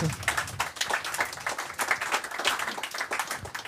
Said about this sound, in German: Also einmal Applaus für die Podcast-Kerze.